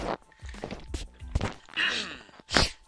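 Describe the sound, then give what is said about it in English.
Someone takes a sip of water: soft swallowing and gulping sounds, a couple of dull thunks like a cup being handled, and breathy exhales afterward, with no talking. “Okay taking a drink of water.”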